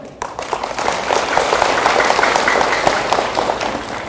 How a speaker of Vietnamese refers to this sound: nghe vỗ tay giòn giả là biết các cháu thích rồi đó